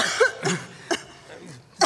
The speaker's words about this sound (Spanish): De pronto ella se detiene y llevándose el pañuelo a la boca trata de no toser, pero no puede evitarlo.